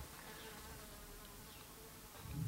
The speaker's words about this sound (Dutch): Hmm, ik hoor hem ook. Een hele luide vlieg. wow.